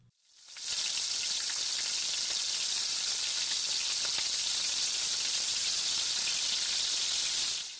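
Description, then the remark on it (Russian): Tomatoes and green onions sizzle loudly as they are stir-fried together for one minute over high heat in a hot wok with vegetable oil, a steady bright hiss scattered with small pops and crackles, starting after a brief moment of quiet and continuing without any talking. “Увеличьте огонь до высокого и добавьте помидоры и зеленый лук. И их вместе обжаривайте одну минуту.”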